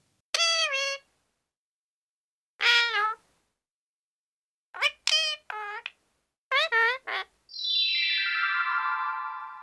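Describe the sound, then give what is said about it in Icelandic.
A parrot calls in a series of short, warbling, nasal squawks, some in quick pairs and triplets, ending with one long, sustained shrill cry. No one speaks. “Þetta var Páfagaugur.”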